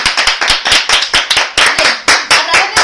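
Loud hand clapping with dense, sharp claps in an uneven rhythm, like a small group applauding enthusiastically for a few seconds, with no voices over it; applause for listeners from La Mancha, Spain.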